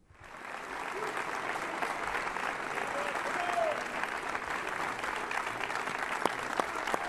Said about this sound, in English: Well, right now they're clapping because he just talked about Cuba. He's actually leading the applause. Facing the crowd behind him, clapping with him.